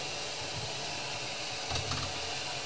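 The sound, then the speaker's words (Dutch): A steady, soft hiss and low rumble of water heating in a pot on the stove for pasta, continuous, with faint bubbling swells near the end and no voices. “Ondertussen ben ik water aan het koken voor de ehm, pasta.”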